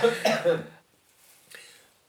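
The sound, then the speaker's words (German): A loud burst of coughing, two or three harsh hacks in quick succession, followed by quieter throat-clearing and breathy rasps trailing off. “Sorry, Paul, mach mal weiter, ich muss husten.”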